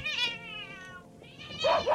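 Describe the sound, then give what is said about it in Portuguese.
A cat lets out two loud, drawn-out meows in quick succession, the second rising sharply and sounding alarmed, with no talking. The cat has been startled by a rat. “Uma pulga acordada que picou o rato, que assustou o gato,”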